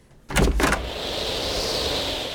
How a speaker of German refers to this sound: Lass sie mal rein, lass sie mal rein. Ich mach mal das Fenster ja? auf, ja.